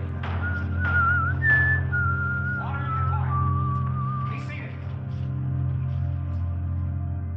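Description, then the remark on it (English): A man whistles a slow, wavering melody of held notes and gliding pitch bends as he walks away, over a constant low droning hum in the background. “He just smiled sleepily and walked away, whistling.”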